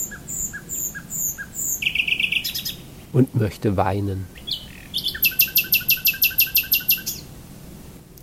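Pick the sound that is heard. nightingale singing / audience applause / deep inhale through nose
nightingale singing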